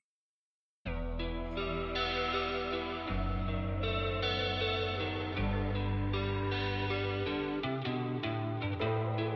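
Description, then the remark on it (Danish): A recorded song begins after a brief silence: heavy, effects-laden guitar with distortion and chorus over sustained bass notes that shift every few seconds, loud and full, with no voices yet. “Men vi kan, jo, øh, vi kan jo give den et lyt, og så kan vi jo prøve at se, om vi kan sætte ord på den bagefter sammen.”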